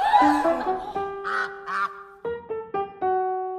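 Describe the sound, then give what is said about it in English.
Two short, raspy duck quacks sound close together near the middle, set against sustained tonal notes that step in with sharp onsets toward the end. “And now, what waddles into view, dripping on the horizon? The duck”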